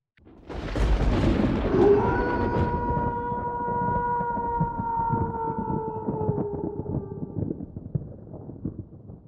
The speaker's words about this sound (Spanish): Una fiera, y solo una, aúlla en las noches del bosque. El lobo es carnívoro encarnado y es tan ladino como feroz.